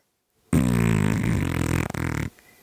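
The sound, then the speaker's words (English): A loud, buzzy fart sound effect, one sustained raspy blast of nearly two seconds that sputters slightly near the end and cuts off abruptly, with no talking. “Is that a fart noise or a snore?”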